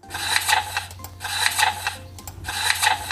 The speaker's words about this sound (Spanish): ¿Qué tal, eh? Es el sonido de las páginas dando vuelta. Es algo eh, que suena muy padre.